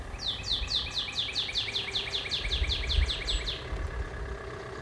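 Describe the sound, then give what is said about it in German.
A bird sings a fast series of about fifteen high, sweeping chirps in a steady rhythm over a low rumble of street hum and traffic on a Berlin street during the first Corona lockdown, with no one talking. “Da klang es selbst auf Berliner Straßen eher so.”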